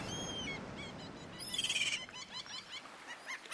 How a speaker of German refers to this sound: Und wenn diese Vögel jetzt noch weniger Krach machen würden, dann wäre das auch deutlich angenehmer.